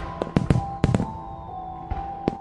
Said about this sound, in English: Hm, that's odd. All the city's fireworks were set off earlier. Just some kids, probably.